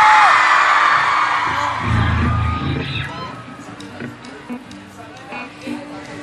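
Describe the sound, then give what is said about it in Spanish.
A festival crowd at UR Festival Neverland 2018 cheers loudly to welcome Latin Dreams onstage, a dense roar of shouts and screams that swells for a couple of seconds, then fades into softer crowd murmur with a voice speaking over it. “Así que yo quiero que por favor todo el UR Festival me ayude recibiendo a Latin Dreams con una fuerte bulla.”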